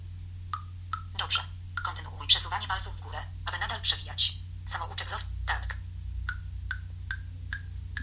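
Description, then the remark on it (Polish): A phone's scrolling sound as a list is scrolled with two fingers: a run of short, watery blips like drops being poured, repeating evenly at the start and end, with a synthetic voice announcing which list items are displayed between them. “O, właśnie, taki dźwięk, takie nalewanie wody jakby.”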